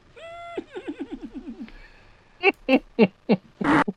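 A horse whinnies, a high, quavering neigh that shakes downward in rapid pulses, followed by a few short, breathy snorts and one final harsher blast.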